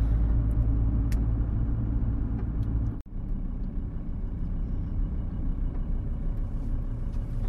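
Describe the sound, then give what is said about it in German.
Steady, deep engine rumble from inside a VW bus, droning continuously with a brief dip partway through; no voices, just the low vehicle hum throughout. “Außer dass ich jetzt im VW-Bus sitze.”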